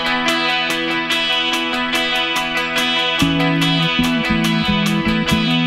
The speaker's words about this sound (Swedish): Första låten jag ska spela, den är, jag tycker den hooken i den är så jävla stark.